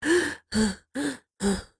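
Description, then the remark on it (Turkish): A voice imitates the labored, rattling gasps of a dying person's death rattle: four heavy breath sounds in steady rhythm, each a rough, strained inhale-exhale with brief pauses between, fairly loud. “diye biz can çekişme deriz Türkçe'de. O tarz bir böyle diye nefes alıp verme olur.”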